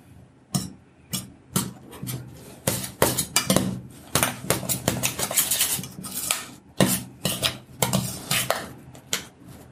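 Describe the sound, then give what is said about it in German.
Repeated scraping and clinking of a utensil against a bowl as potato powder is mixed into a soft dough to absorb water, in quick irregular strokes, with no talking. “Ich ich tue noch ein bisschen Kartoffelpulver rein, um noch mehr von dem Wasser da abzuziehen.”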